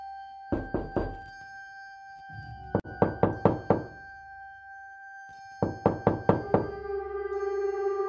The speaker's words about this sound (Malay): Tengah duduk kat ruang tamu dengan suami masa tu, tiba-tiba dengar orang ketuk pintu. Tok tok tok tok tok tok tok tok tok tok. Tok tok tok tok tok. Dengar. Dengar dengan jelas bunyi orang ketuk pintu rumah.